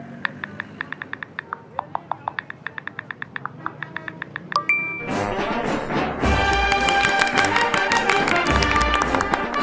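Quick, light clicks of someone typing "Independencia del Perú" on a mobile phone keypad tap out at a fairly steady pace for a few seconds, then loud, busy music suddenly blares from the phone and drowns everything out.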